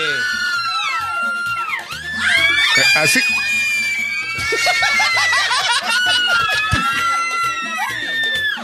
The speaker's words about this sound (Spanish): un grito por Miguelito, un grito fuerte